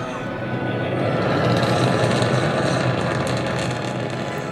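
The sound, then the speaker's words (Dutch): A rocket launch filmed on a phone from nearby: a loud, steady, rumbling roar with a rough crackling texture, holding at the same intensity for several seconds without a break. “Hoorden jullie dat? Een echte raketlancering.”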